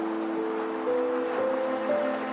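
A steady, hissing wash of ocean waves rolls on without a break, with soft, sustained low musical tones humming gently underneath, as soothing sleep music. No one speaks.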